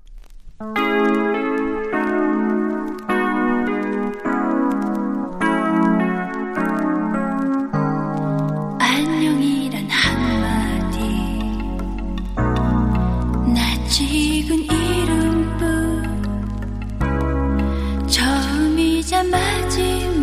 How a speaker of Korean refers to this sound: LP를 복각했나 봐요. 칙칙 소리가 아주 어, 정감이 있습니다.